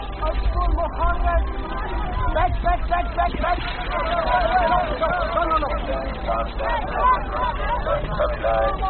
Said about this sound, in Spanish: Es la noche del 21 de septiembre de 2022, frente a las costas de Libia, en aguas internacionales en un lugar indeterminado del Mediterráneo central. 76 personas son rescatadas. Me encuentro en una de las lanchas de rescate.